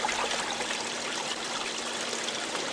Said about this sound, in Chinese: 山洞旁边是闪闪发光的瀑布。